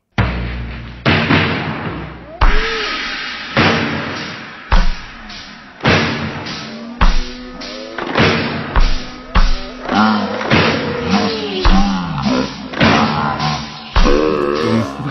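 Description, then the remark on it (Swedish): A pop song played drastically slowed down to 52 beats per minute, with heavy booming thuds landing at a slow, steady pace under warped, drawn-out tones and a muffled, dull sound throughout. “Den låter så här ja, den, när man spelar ja, den i 52 beats ja.”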